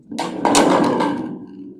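A single loud gong strike opens with a bright, crashing hit, then rings on in a shimmering, humming wash that slowly fades over the next second or so. No voices are heard.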